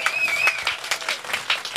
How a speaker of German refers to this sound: auch nochmal einen riesengroßen Applaus hier am Lausitzring.